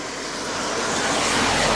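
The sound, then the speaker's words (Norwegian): A steady outdoor roar of traffic swells louder over nearly two seconds as a vehicle draws near, a broad rushing hiss with low rumble and no voices. “Bare følge litt med på trafikken.”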